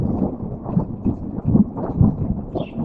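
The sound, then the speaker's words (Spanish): Deep, continuous rumbling of thunder rolls through the whole stretch, swelling in a few heavier surges, with a steady storm wash underneath and no voices. “Vaya tormenta.”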